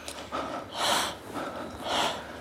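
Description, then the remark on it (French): Heavy breathing, two long, loud, airy breaths about a second apart, each a rough rushing exhale with softer intake between. No talking. “On ne produit pas de discours, mais des signaux vocaux plus ou moins intenses, des souffles,”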